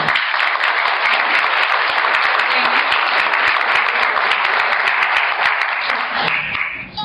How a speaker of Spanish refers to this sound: recibámosla con un fuerte aplauso.